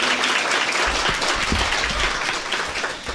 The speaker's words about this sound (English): You have to give another round of applause